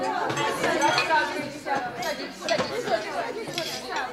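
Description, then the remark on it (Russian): Overlapping chatter of guests taking their seats at a table, with light clinks of dishes and cutlery scattered through the steady hum of voices. “Гости рассаживаются.”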